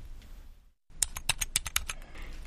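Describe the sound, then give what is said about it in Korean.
Rapid clicking of keys on a computer keyboard as someone writes a serialized novel for a blog, an irregular burst of sharp taps after a brief silent gap, with no voices. “나는 게시판 관리팀에서 새롭게 발견한 재능, 글쓰기를 이용해 블로그에 연재 소설을 쓰며 독자들과 소통하고 있다.”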